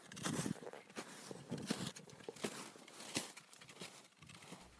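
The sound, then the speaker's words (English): Steady, rhythmic crunching footsteps of snowshoes through snow on a Sunday afternoon snowshoe walk near Bombay Brook on the road to York Harbor, fairly loud, each step a broad burst of crunch at a walking pace with no voices. “We leave you with the sounds of a Sunday afternoon snowshoe recorded near Bombay Brook on the road to York Harbor.”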